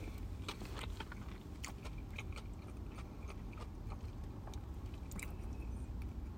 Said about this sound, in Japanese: では、いただきます。咀嚼音がしますので。うん。